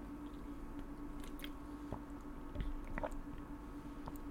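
Someone takes a sip of water, with soft wet mouth clicks and a gulp or two over a low, steady background hum. No one speaks.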